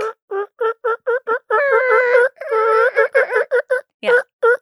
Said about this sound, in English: Yeah, Is that she, turkeys coming in? Yeah, she, no, there was a turkey that rolled past the window earlier though.